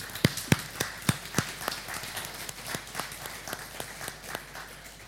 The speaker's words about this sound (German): Und lasst uns doch mal den Leuten Applaus geben.